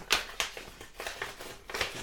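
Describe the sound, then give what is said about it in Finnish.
Paper crinkles and rustles as a band's fan club welcome package, sent by Royal Mail, is torn open, a series of sharp, uneven crackling bursts with brief pauses between them and no one speaking. “Ja tota, tässä tämä on Pitäisikö mun avata tämä?”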